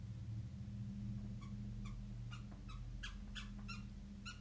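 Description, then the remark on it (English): A puppy squeaks her little squeaky toy about eight times in quick, uneven bursts that speed up toward the end, heard over a steady low hum with no one talking. “Guys, if you hear that, that is my puppy in the background.”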